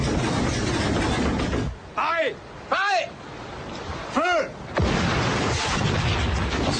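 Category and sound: sound effect, naval cannon fire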